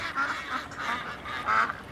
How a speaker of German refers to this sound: Auch so kann sich ein Kanal anhören. Die Fischteiche haben sich zu einem Paradies für Enten entwickelt. Nährstoffreiches Wasser, ein abgeschlossenes Betriebsgelände, ideal für Wasservögel, die hier ungestört die Mauser verbringen können.